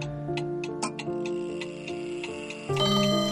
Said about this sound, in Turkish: Salondan geçerken iki pencereyi birbirinden ayıran kaim sütunda, dünyada bir zamanlar huzur diye bir duygunun olduğunu anlatmak istercesine, tatlı tatlı tıkırdayan Şevki Paşa konağının kadim saatine takıldı gözlerim.